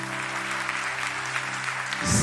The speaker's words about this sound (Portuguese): Gente, eu vou pedir a vocês, vocês que estão em casa podem também aplaudir esse grupo de servos.